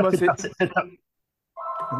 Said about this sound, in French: téléphone, excusez-moi.